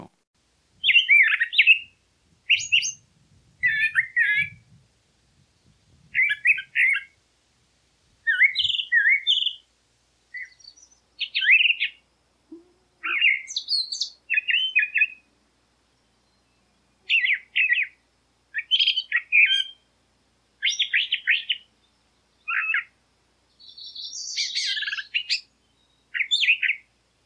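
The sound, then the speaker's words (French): A mockingbird sings alone, pouring out a long run of short, varied phrases of chirps, whistles and trills, each burst different from the last, clear, with brief pauses between. “Le moqueur, lui, c'est un répertoire de 1000 chants.”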